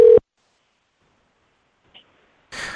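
A brief electronic phone tone from an outgoing call that goes unanswered cuts off into a long stretch of silence, with a faint click and then a burst of noisy sound at the very end.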